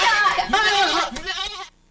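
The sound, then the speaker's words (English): A person imitates a goat with a loud, wavering bleat that lasts under two seconds, vibrating nasally before cutting off abruptly into silence. “well, not to make you uh, hit the goat sounds again”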